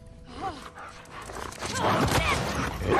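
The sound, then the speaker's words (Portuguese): A dog in a video game barks and yelps several times amid busy game sound effects and rustling, with a voice briefly talking over the mix; the barks are moderately loud. “Mata o cachorro não. Mata não.”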